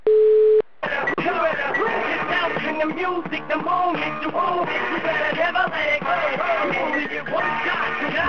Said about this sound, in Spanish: Algo llamativo es que cuando llamás por teléfono a, a Walti, le suena el teléfono de esta forma.